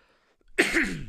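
A single light cough, fairly soft, breaking out after a brief quiet moment with a throaty, slightly rasping tail; no talking during it.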